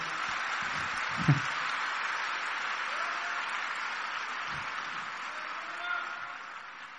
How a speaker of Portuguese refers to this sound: Aplauda o Senhor.